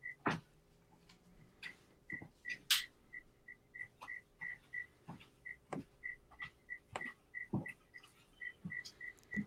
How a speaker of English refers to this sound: You see Mr. Turtle in the back swimming around, and there's a cricket in the house